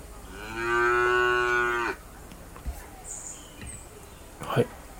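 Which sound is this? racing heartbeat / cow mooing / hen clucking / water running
cow mooing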